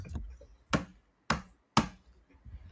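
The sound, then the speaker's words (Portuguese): Three sharp knocks, evenly spaced about half a second apart, as a small hammer taps a crab shell to crack it open, with a softer knock at the start and no talking. “Você gosta do som do, do crustáceo sendo, sendo quebrado?”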